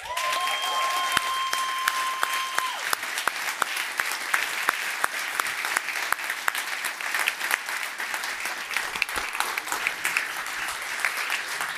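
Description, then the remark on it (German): A live audience applauds loudly and steadily for several seconds, welcoming basketball analyst Arne Brandt. The applause is dense clapping with some cheering mixed in, and a brief whistle-like tone rings out near the start. “Macht mal bitte Lärm für Arne Brandt.”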